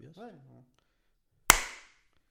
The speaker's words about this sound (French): Ah oui, le clap, tu connais, tu connais.